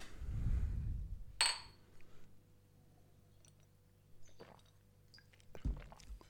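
Glass bottles clink against a hard surface a few times as they are set down, with a sharp bright knock near the start and quieter taps afterward, over a low rumbling background.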